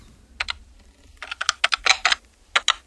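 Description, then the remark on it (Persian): A quick, uneven run of about a dozen crisp plastic button clicks, fairly soft, from keys being tapped on a calculator while playing a game on it, with brief pauses between bursts and no talking. “صداشو درار خیلی صدایی نیستش در حد همین تیک تیک هست ببینی”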